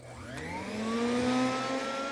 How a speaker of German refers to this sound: Also in meinen Ohren klingelt das Staubsaugergeräusch lange nicht so schrill.